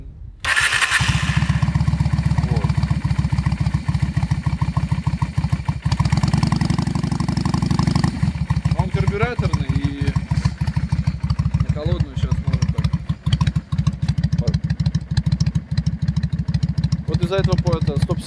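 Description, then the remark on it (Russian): A motorcycle engine fires up and settles into a loud idle, chugging with a steady rattling pulse throughout, while a voice speaks briefly over it now and then. “видишь, у меня тарахтит, конечно, не отда.”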